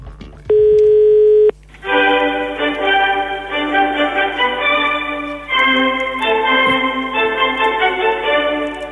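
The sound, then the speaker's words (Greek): A single loud telephone ringing tone sounds for about a second while placing a call to the Maximos Mansion, followed by a steady stream of bright, melodic electronic tones like hold music, with no voices. “Οπότε πρέπει να μάθουμε τι ακριβώ ε, συμβαίνει, πώ θα γίνει όλο αυτό και παίρνουμε τηλέφωνο στο Μέγαρο Μαξίμου.”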